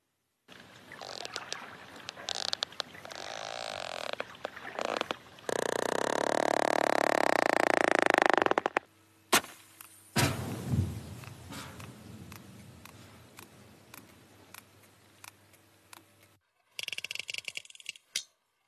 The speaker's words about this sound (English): These are the sounds of the mighty sperm whale, a fellow mammal that can dive almost a mile, hold its breath for more than an hour, and lives in these amazingly complex matriarchal societies.